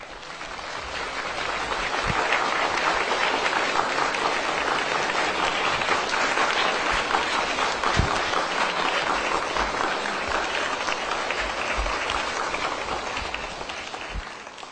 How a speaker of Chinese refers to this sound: 请全体起立，我们一起掌声有请索达吉堪布呢入场。